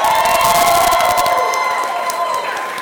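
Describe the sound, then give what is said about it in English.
A loud live crowd cheers and whoops as a performer is introduced to the stage, a dense wash of voices that fills the whole clip, with scattered clapping early on before the roar eases slightly. “Make some noise.”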